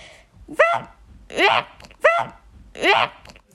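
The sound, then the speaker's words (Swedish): A nine-year-old child's voice imitates a fox's bark with four sharp, rising yelps in two evenly spaced pairs, fairly loud, with short pauses between calls. “jag är nio år och jag ser att en räv låter så här.”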